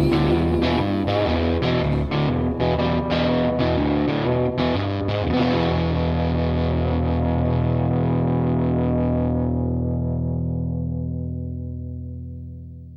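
A recorded soul song plays at full volume, punchy distorted guitar chords driving a steady beat before landing on a long held final chord that rings out and slowly fades away.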